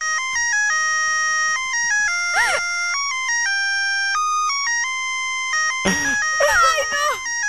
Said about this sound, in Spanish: Mi- Mi teléfono suena así, mira.